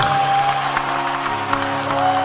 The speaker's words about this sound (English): Clap for Jesus. The clapping can be better than that. Our clapping can be better than that.